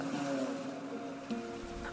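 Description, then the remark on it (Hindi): Steady, continuous rush of flowing water of the Yamuna river with soft lapping, moderately loud, holding even for the whole stretch with a low droning undertone and no voices. “इस बाढ़ के आने का एक कारण था दरअसल यमुना का पानी भगवान के इस अवतार के पांव छूना चाहता था जैसे ही पानी ने नन्हे बालक के पैरों को छुआ वह धीरे धीरे कम होने लगा”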